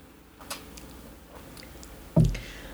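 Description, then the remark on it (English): Quiet mouth sounds of someone sipping a drink while tasting it: soft wet clicks and slurps, then a fuller gulp or clunk near the end, with no talking. “Let me take another sip, some tasting notes.”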